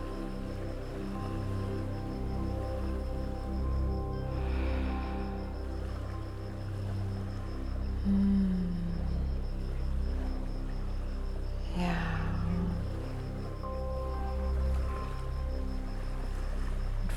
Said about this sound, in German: Vielleicht lauschst du einen Moment dem Wasser hier, den Geräuschen und nimmst etwas von dieser Sanftheit des Wassers auf und von dieser leichten Beweglichkeit.